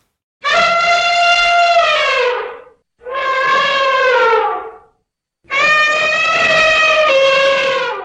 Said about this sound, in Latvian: Tieši tā, tas bija zilonis. Tas bija kārtīgi zilonis.